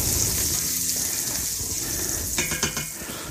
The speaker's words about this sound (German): Jetzt gieße ich einmal kurz mal mit einem Schlückchen Wasser an, damit sich der Satz vom, von dem Speck bisschen anlöst und das Ganze nicht zu dunkel wird.